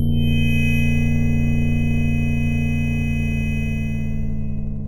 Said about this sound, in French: Mais le bruit persiste dans son oreille droite. Il entend toujours deux sifflements, un grave et un plus aigu.